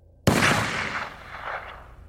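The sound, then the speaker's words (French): A single loud gunshot from a .357 Magnum cracks out suddenly, the fifth shot, fired in the dark as the coup de grâce that killed Jean-Louis Fargette outside his apartment building, then rolls away in a long, echoing tail that swells briefly again before fading. No voices are heard. “Puis un cinquième. Le coup de grâce.”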